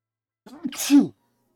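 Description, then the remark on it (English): A single sneeze with a short intake of breath and then a sharp, noisy burst that cuts off quickly, followed by silence. “Oh, Bless you.”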